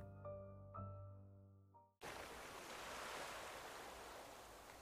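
A short tonal musical phrase fades out, then a steady wash of ocean surf takes over, a broad rushing roar of waves on the shore that stays loud with no voices.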